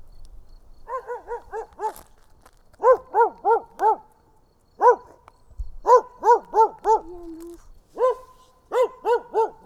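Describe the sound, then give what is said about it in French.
A dog barks in quick clusters of four or five sharp, high-pitched yaps, with short pauses between bursts and a brief whine partway through. No one speaks. “Allez, viens vite, mon chien.”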